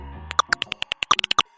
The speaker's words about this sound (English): Researchers can take the recordings and shift the bat call frequencies into ranges that human ears can detect. Here are some examples. This is the sound of a hoary bat.